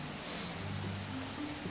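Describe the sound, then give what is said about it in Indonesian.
Steady rain falls outside in a continuous, even hiss with a soft low rumble beneath, unchanging throughout, with no voices. “saya baru selesai ngunyah dan kebetulan di luar lagi hujan ya.”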